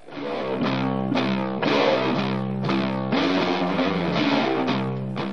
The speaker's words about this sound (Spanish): Eh, será el caso entonces ahora de la canción número 7, ¿eh? canción número 7, que se llama